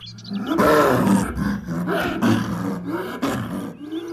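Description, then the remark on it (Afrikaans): A leopard growls in a continuous deep, rumbling roar that rises and falls over several seconds, loud, with no talking. “Maar na ruk maak luiperd se gegrom hom wakker.”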